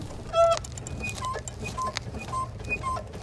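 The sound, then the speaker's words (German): A scooter's front suspension fork squeaks and creaks in short, irregular, honk-like bursts, repeating over a steady low rumble of riding. “Naja, die vordere Federgabel macht so ein paar unschöne Geräusche.”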